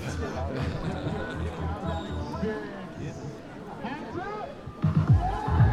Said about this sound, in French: Allez vient de lancer un, un petit drop qui enjaille la foule.